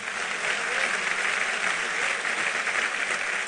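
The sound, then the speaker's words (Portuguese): Sustained applause from a church audience glorifying God, a dense, steady wash of many hands clapping at an even loudness for a few seconds, with no voices standing out. “Aplauda ele e glorifique o seu nome.”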